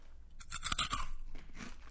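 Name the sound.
crunchy snack being chewed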